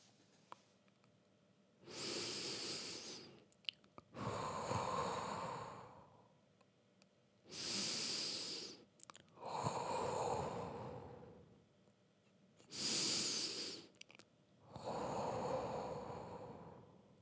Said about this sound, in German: Deshalb atme ich fünfmal tief durch.